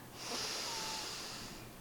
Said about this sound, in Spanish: Mira, eh, si yo me pongo esta mano aquí y esta mano aquí, eh, ocurre que la respiración pulmonar, la normal, es esta